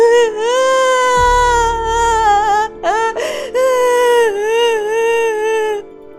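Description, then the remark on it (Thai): A child alone in a cornfield wails in long, high-pitched, sustained cries, broken by a couple of short catches for breath, holding at a strong, steady loudness for about six seconds. “ลอยจึงได้ร้องไห้ทีแรกก็ร้องเบาๆต่อมาก็ร้องดังขึ้นเรื่อยๆเรื่อย ๆ”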